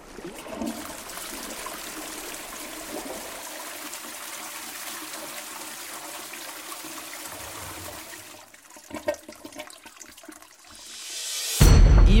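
A toilet flushes with a steady rush of water lasting several seconds, turning gurgly and uneven before a loud, sharp surge at the very end; no one speaks.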